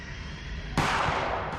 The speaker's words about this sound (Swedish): Ni alla rycker till när ett skott ekar genom fasaden.